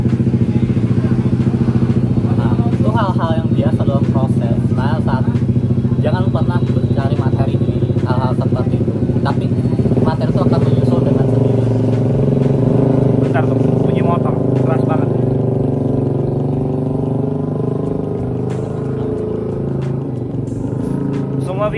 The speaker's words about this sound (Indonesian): jadi mohon maaf bagi teman-teman yang mungkin agak terganggu dengan suara motor ya nikmati saja ya nikmati aja